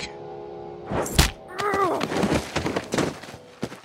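A sharp, loud slap rings out as a woman hits a girl hard, followed by a brief vocal cry and a series of heavy thuds as the girl falls to the floor.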